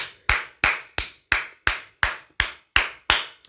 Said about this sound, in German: So, das war der Applaus